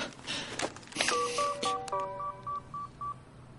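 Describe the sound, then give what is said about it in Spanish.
A run of about eight short, evenly spaced electronic beeps from a mobile phone keypad, clear, following a moment of soft rustling, as Hank presses a button on a mobile phone taken from a Hello Kitty case to check a message. “Hank pulsa un botón. Tiene un mensaje. Se pone el teléfono en la oreja.”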